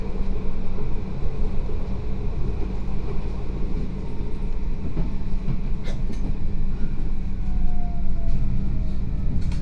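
A tram rolls through Schwerin, through the Platte housing estate, with a steady low rumble and constant rattling, punctuated by a few brief metallic clicks and a faint rising whine toward the end. No one speaks.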